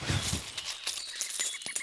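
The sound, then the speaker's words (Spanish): Silver coins inside baskets jingle and clink together in a short burst, with bright metallic rattles and a couple of dull knocks at the start, and no one speaking. “Son monedas de plata.”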